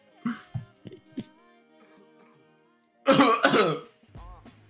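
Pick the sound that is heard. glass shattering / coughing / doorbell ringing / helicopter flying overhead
coughing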